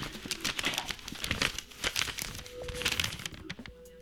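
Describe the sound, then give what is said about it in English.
Rustling and crinkling of paper slips being rummaged and pulled out of a hat, with dense, irregular crackles continuing for several seconds and no voices. “This is what it sounds like to pull paper out of a hat.”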